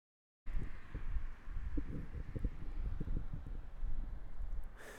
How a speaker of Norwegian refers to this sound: Da er vi på fredag 1. mai. En fin dag her i Kristiansand. Eh, kanskje 10 grader og blåser litt lett. Lett skyer.